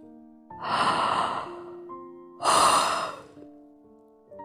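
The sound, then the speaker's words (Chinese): A tired yawn in two long, breathy exhalations, the second starting after a short pause and sounding slightly stronger, with a soft sustained tonal background underneath and no talking. “由于很累，他打了个哈欠。”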